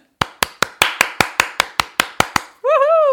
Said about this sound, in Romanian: Am uitat să mă aplaud pe mine însă.